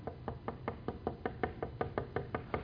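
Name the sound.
knuckles knocking on wood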